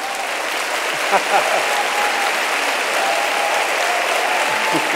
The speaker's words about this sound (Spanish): Pero lo que dice que hagamos con las manos, aplaudí, A ver, trajo sus manos.